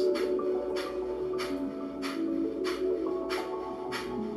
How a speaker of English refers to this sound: And breath number three is breath of fire, which is a short, rapid exhale out the nose, and the inhale happens naturally on its own, and it sounds like this.